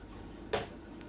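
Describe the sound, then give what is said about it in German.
A door clicks shut into its latch with one short, solid knock, followed a moment later by a faint second tick, over a low background hiss. “Ein letzter Blick aufs Bett, dann fällt die Tür ins Schloss.”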